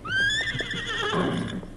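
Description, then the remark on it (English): A wild horse named Silver gives one loud whinny, a high shrill neigh that holds and wavers for over a second before trailing off, with faint low rumbling underneath. “The horse was wild and unused to the ways of men and the weight of a saddle and a rider.”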